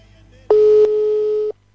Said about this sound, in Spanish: Va, a estar sonando un teléfono. Vamos a ver si, si sale, sale. ¿Suena o no suena esto, che? Ahí está. ¿Se escucha?